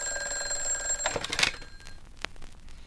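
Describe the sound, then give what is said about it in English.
An old telephone bell at a city ambulance service rings with a bright, metallic trill for about a second and a half, then cuts off, followed by a few quiet clicks and knocks. No one speaks. “Just when I'm comfortable. Eh, hand me that phone.”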